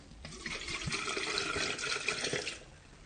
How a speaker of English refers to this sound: Now I'm going to empty some water out.